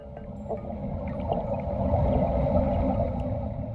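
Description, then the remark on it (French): A large metal coring tube sinking into the depths of Crawford Lake, west of Toronto, heard underwater as a steady low rumble and muffled gurgling, with faint creaks and brief clicks rising above it, fairly loud throughout. “C'est le son d'un grand tube métallique qui s'enfonce dans les profondeurs du lac Crawford à l'ouest de Toronto”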